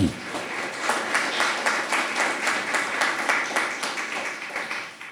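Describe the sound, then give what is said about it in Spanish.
An audience breaks into steady applause to their God, many hands clapping together in a dense, sustained burst that keeps an even level for several seconds before tapering off at the end. “Aplaudan a su Dios.”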